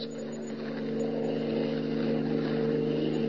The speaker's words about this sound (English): Planting himself in the middle of the only road leading from the Sudbury airport, Superman waits for Hans Holbein's car to come along keen hearing detects an approaching motor, and he stands at rigid attention, every rippling muscle tense.